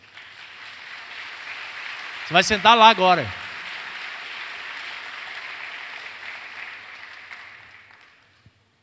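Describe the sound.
An audience applauds Jesus during a sermon in a dense, steady wash of clapping that lasts about seven seconds before fading out. Early on, a voice briefly speaks over the applause.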